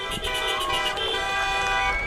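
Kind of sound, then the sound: vehicle, car horns honking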